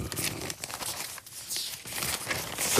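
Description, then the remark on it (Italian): Steady rustling and crinkling of paper for a few seconds, like a large newspaper page being handled and turned, with no talking over it. “scusate che giro pagina, non è sempre facile trovarsi.”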